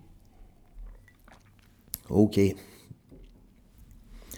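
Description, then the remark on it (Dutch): Someone takes a quick sip of water: a small click, then two short, throaty gulping swallows, with a brief spoken word just before. “Eh, even een slokje water drinken voor ik eraan begin.”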